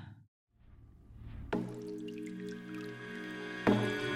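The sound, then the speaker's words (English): Water-drip sound effects plink over a song intro, with a low swelling rumble giving way to a bright, sustained musical chord hit and a second hit near the end. No voices. “I mean, it's literally watery.”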